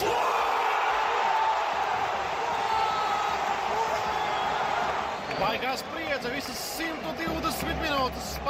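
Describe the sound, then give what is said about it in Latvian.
A dense, roaring stadium crowd of football fans, mostly Moroccan supporters, cheers and shouts continuously during a penalty shootout at a FIFA World Cup match, with individual yells and chanting voices rising more sharply out of the din in the second half. “Te arī pārsvarā marokāņu līdzotēji ļoti skaļi. Visas spēles garumā un tagad emocijas.”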